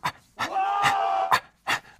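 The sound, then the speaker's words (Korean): A voice imitates heavy, ragged panting, a few sharp breathy gasps broken by a longer strained, wheezing exhale, with no words spoken; a soldier panting while digging into the ground with a field shovel on a mountaintop at dawn. “뭐 이렇게 헉헉대고 헥헥대고 난리야?”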